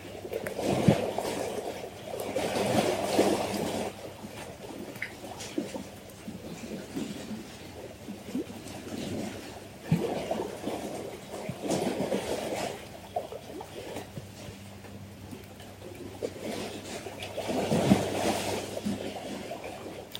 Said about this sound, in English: restless waters, still holding the energy of yesterday's storm.